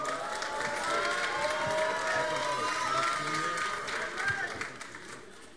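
A crowd breaks into sustained applause with cheers and whoops mixed in, a dense, steady roar of clapping that holds loud for several seconds before starting to thin out.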